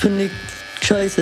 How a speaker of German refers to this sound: Ich muss jetzt hier mal im Ohr mal einmal lang rasieren. Schön stillhalten.